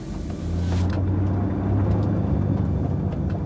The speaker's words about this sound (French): Voyant la voiture disparaître dans un nuage de fumée, Reed Hastings en reste bouche bée.